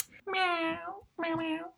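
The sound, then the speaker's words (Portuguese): A person imitates a cat with two drawn-out, whiny meows in quick succession, each about a second long, fairly loud. “Um gato começa a apreciar a gatinha, não é? Tipo,”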